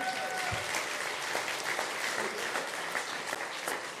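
Steady applause from an audience fills the whole stretch, a dense patter of many hands clapping without pause, fairly loud and even throughout.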